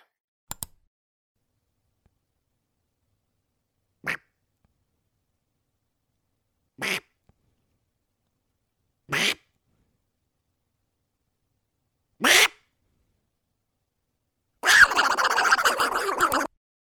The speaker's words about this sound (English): Duck sounds? Really?